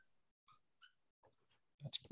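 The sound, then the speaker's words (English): A dog chews on a squeaky toy, giving a few short high squeaks followed by soft gnawing and a louder squeak-and-crunch burst at the end, fairly quiet with no talking. “dog uh, chewing on a chew toy over there.”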